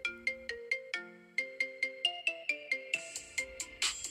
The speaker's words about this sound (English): Um, it's actually my ringtone, so of course it is.